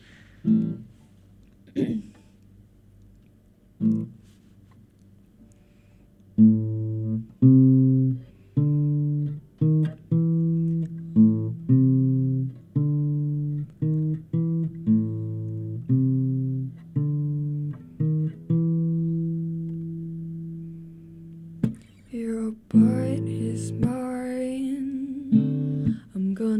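A cover of a pop song plays: a few scattered notes, then a steady run of pulsing, pitched notes in a repeating pattern, ending in a fuller, brighter burst.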